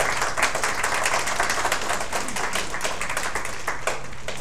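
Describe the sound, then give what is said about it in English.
A crowd at a rural school applauds the ambassador of Palestine steadily, many hands clapping in a dense, sustained wash of sharp claps that holds at an even loudness for several seconds with no voices over it. “If the ambassador of Palestine can stand and just wave, and you give her a round of applause, ladies and gentlemen.”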